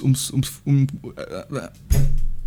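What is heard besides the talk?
sneeze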